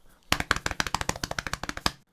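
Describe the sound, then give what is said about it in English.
Rapid body-percussion drum roll made by hands patting on a chest as a rhythm exercise, about fifteen quick dull thumps in a steady fast rhythm lasting under two seconds, with no talking. “We're going to explore several ways that we can make rhythm with our bodies, one of which is by tapping and clapping and trying to do a roll sound with your hands on your chest like this.”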